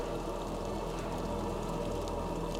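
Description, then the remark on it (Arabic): Steady, even rainfall hisses throughout, a dense wash of droplets with a low, sustained tone beneath. It sounds unbroken, with no voices. “بقولكوا ايه كفايه كلام ويلا بينا نعيش احداث مرعبه ومخيفه على صوت المطر والمزيكا الغامضه زي عوايدنا كل يوم سبت مع مستر كايرو”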